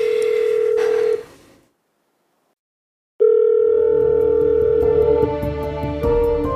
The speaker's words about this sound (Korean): 수지는 길게 이어지는 신호음을 들으며 기다린다. 기훈이 전화를 받지 않는다.